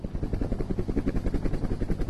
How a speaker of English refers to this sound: At 89 degrees north, the ship's helicopter is loaded with instruments for the first time.